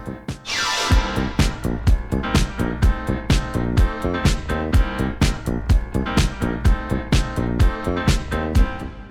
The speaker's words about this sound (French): Le son du jour est tiré du dernier album de ……